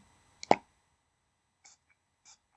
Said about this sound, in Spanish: Eh, como aceites de masaje, de eh, sprays, que es lo que tengo yo aquí ahora mismo, el spray.